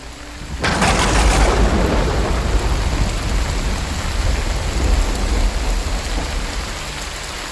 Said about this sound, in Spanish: El 15 de noviembre de 1542, en la entonces Nueva España, hoy México, y la reciente fundada población de Mérida, se desató una fuerte tormenta que convirtió a los caminos de tierra casi en algo inaccesible.